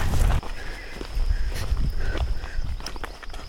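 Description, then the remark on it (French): Steady footsteps crunch at a walking pace along a hiking trail that runs like a balcony, over a low rumble of wind and a faint high steady tone in the background. “On marche sur euh, comme un balcon à gauche.”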